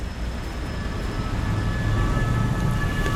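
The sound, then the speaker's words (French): Steady, loud rumble of a metro train at Ourcq metro station in Paris, low roar with faint high tonal whines, continuous for the whole stretch with no voices. “Je suis métro Ourc à Paris”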